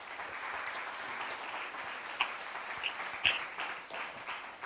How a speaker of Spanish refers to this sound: Denle un aplauso a Dios porque eso es digno de alabar.